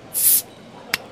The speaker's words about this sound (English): So sit back, relax, Pop a bottle.